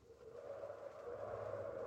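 A steady howling English winter wind moans continuously, its whistling tone swelling slightly louder as it goes on, with no voices present.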